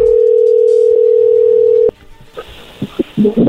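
A steady, loud telephone dial tone hums for about two seconds, then cuts off, followed by a quick series of short dialing beeps and clicks as a call is placed to a woman, with no one speaking.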